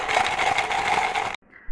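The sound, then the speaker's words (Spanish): A bright, continuous metallic jingling of a tambourine found among the straw in a stable rings loud for over a second, then cuts off abruptly, leaving a faint trailing shimmer. “Entraron y buscaron entre la paja y hallaron una pandereta.”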